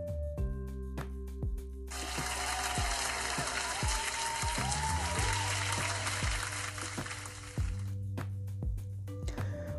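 A burst of applause, many hands clapping together, swells in for several seconds over steady background music, then cuts off abruptly, leaving the music alone.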